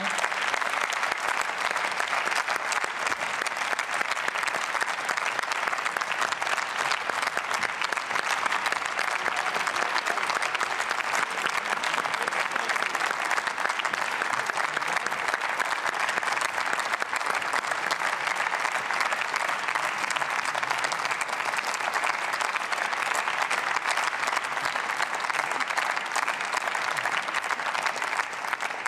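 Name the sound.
parliament applause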